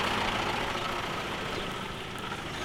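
A tractor engine rumbles steadily with a low, throaty drone as a man drives it away in Saint-Salvador, fading only slightly as it pulls away; no one speaks.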